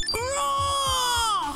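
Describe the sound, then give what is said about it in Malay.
A voice imitates a Godzilla roar on a radio show, marking the end of the show: one long, shrieking, wailing cry that rises at the start, holds steady for over a second, then bends down at the end, loud. “Oh, bunyi Godzilla.”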